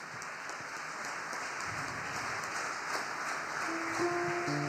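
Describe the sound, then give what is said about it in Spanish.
An audience at a Spanish-language church service claps steadily and continuously for several seconds to applaud a Bible reading, a dense, even wash of applause from many hands, with faint sustained keyboard tones creeping in near the end. “Dele un fuerte aplauso a esta palabra.”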